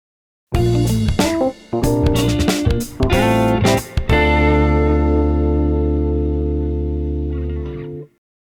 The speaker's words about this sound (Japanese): カットしますので、ジングルをどうぞ。